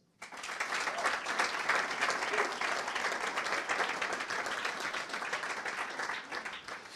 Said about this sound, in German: Euer Applaus.